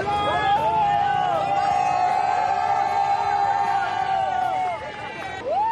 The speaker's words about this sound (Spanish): Sí, ha sido un recibimiento muy especial para él porque entre esos aplausos estaba el de su hijo Carlos Sainz, el piloto de Ferrari, que fue el primero en abrazarse.